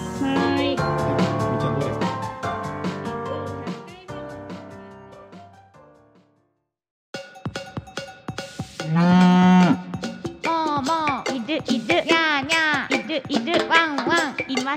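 After a short musical passage and a brief silence, several drawn-out cow moos rise and fall in pitch, with one loud, deep low at the center, layered over a busy tonal backing.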